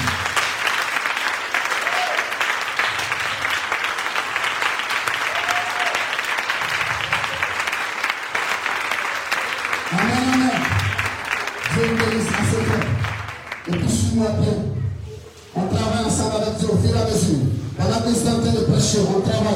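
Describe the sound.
A large church audience claps loudly and steadily for several seconds, then raised voices and shouts join in over the continuing applause, cheering and acclaiming the Lord together during worship.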